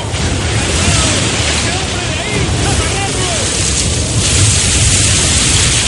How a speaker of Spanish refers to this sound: Algunos marineros son arrojados a cubierta por el fuerte oleaje. La tripulación se agarra a los aparejos para no caer al mar.